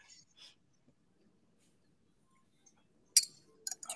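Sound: glasses clinking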